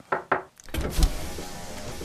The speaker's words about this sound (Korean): 오이 네 개를 꺼내 들고 씹고 씹으며 차에 탔죠. 그때 갑자기 누가 창문을 두드리더라고요.